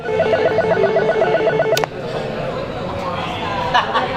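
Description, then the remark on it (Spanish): An intercom at a huge rustic gate in the Chueca neighbourhood rings, unanswered, at 3 in the afternoon, with a repeating electronic buzz-tone pattern for nearly two seconds, then cuts off sharply, leaving a steady background hum with faint murmuring. “Nos detenemos frente a un portón rústico enorme y llamamos sin éxito al telefonillo.”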